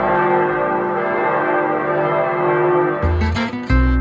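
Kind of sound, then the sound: signal or alarm, church bells ringing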